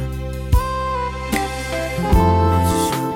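A song plays with steady sustained harmonic tones and distinct note changes, punctuated by a few soft percussive accents; the music is moderately loud and continuous, with no one talking.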